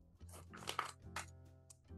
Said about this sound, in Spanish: Con Oxinova, este producto que ya saben, mezclado con agua, un polvito que viene en un sobre, se convierte Miren, lo voy a abrir ahora aquí delante de ustedes, esta bolsita.